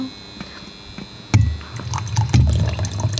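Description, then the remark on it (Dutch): Tea is poured into a cup: a soft clink, then a steady gurgling trickle that rises in pitch as the cup fills, with no voices over it. “nou, dan schrik ik nog even thee eh, bij.”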